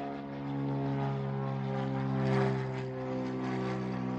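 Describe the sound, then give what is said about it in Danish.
A propeller airplane drones steadily overhead, a loud, continuous engine hum with strong low harmonic tones that swells slightly midway before holding level. No one speaks. “Oh og nu skal vi videre i programmet, eller helt op i luften, som du måske kunne høre her.”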